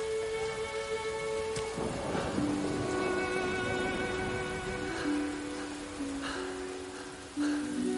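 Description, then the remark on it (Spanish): Steady rain pours down continuously, a dense hiss that runs the whole time, with sustained musical tones drifting over it and a low rumble swelling briefly partway through. “Llueve.”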